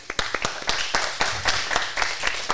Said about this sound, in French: Ouais, on peut applaudir.